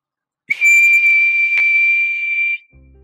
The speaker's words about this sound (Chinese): 听到嘈杂的声响，麦克急忙跑过来，他一边挥手一边吹哨子。